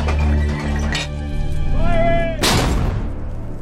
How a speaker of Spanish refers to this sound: Los disparos de la artillería canadiense comienzan de nuevo.